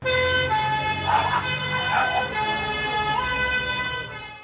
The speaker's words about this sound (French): un camion de pompiers.